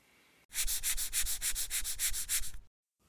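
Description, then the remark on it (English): Rapid, rhythmic scratching strokes, about ten in quick succession, harsh and raspy like something clawing at a rough surface, fairly loud, then abruptly stopping; heard early in the morning, coming from the living room of a house. “The scratches sounded louder, more vocal than before.”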